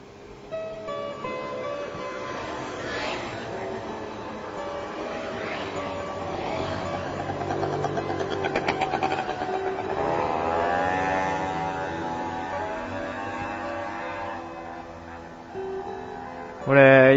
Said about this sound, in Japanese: バイクすごかったですね。軽く10台ぐらいいましたね。こんな夜中に。おかしな話ですよ。